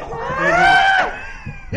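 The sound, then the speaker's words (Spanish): A person lets out a loud, drawn-out, wailing scream, imitating a banshee's shriek. It rises and holds for about a second before breaking off sharply, followed by a couple of brief vocal bursts. “Así grito yo, pero unos gritos que parece que me están matando.”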